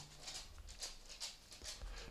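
A dog whimpers quietly in a string of short, breathy bursts that repeat at a steady, fairly quick pace, with no voices.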